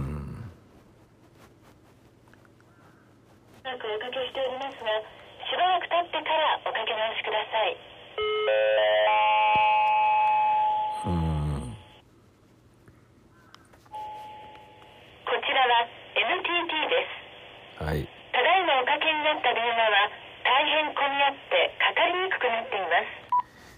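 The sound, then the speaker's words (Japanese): Telephone keypad tones and line beeps sound in bursts, with short tonal phrases and pauses between them, clear, suggesting repeated attempts to place a call that doesn't go through: a phone call to book vaccination appointments for elderly parents. “今日からですねえー、今日からというか今日あの私の年老いた父親と母親のワクチン接種の予約申し込みが始まったんですけど電話がつながりません”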